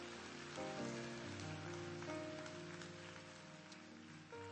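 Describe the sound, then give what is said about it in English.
A steady wash of audience clapping, a hand clap given to the Lord, dense and continuous, with sustained organ-like chords playing underneath throughout. “Come on, give the Lord a hand clap if you got something today.”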